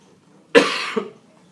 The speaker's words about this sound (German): ja, der Husten und die Viren gehen hier ein bisschen um im Mannschaftshotel der deutschen Nationalmannschaft.